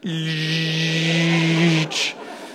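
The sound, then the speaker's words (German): A voice imitates a car power window closing: a steady, buzzing hum with a hissy edge holds for about two seconds, then ends in a short, breathy burst as the window shuts. “Und du hast nur noch ein Geräusch gehört, nämlich der Fensterheber”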